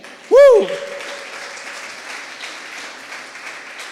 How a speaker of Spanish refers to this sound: Aplauda al rey.